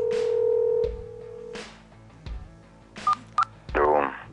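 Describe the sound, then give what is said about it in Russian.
A steady telephone tone sounds for about a second, followed by several short beeping dial tones and a burst of electronic warbling, with faint clicks and line noise between them, as a radio host places a phone call. “Звонок э, я слышу, вот, но, как я понимаю, наши э, радиослушатели э, не слышат. Еще разок попробуем.”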